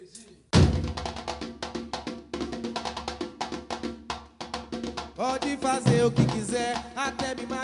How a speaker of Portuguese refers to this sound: Toca a vinheta.